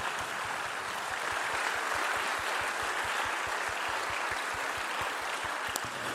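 Steady audience applause fills the whole stretch, a dense patter of many hands with a few heavier rhythmic claps thumping along underneath, fairly loud and unbroken, with no talking over it.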